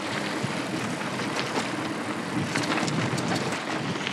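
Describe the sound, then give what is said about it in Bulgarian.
A mountain bike rolls downhill over rough trail, a steady gritty rumble of tyres on dirt with scattered clicks and rattles, fairly loud, no voices. “Това беше добро спускане.”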